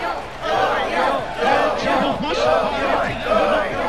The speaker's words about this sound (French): Le public est conquis, le ressentiment galvanisé. Le prénom du chef de parti résonne.